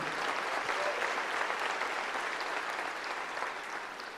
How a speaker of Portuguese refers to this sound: Pode aplaudir o Senhor.